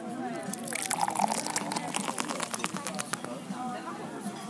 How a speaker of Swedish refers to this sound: Jag tänker att jag häller upp min, för jag fick min i burk. Just det, fick... vi gillar ju det ljudet.